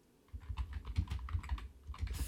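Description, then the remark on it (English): Rapid typing of lyrics on a computer keyboard, a steady stream of quick, light key clicks with a soft low thump beneath, starting after a brief quiet moment and continuing without talk. “That's a lot to type.”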